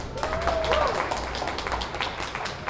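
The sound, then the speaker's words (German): An audience applauds with steady, dense clapping that holds at an even loudness for the whole stretch, with a few brief higher cheers or whoops rising over it. “Dann nochmal einen riesengroßen Applaus für Julia Pink.”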